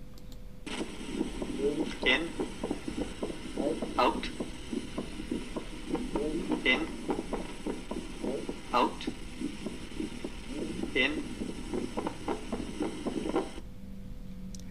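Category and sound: medical sound, split second heart sound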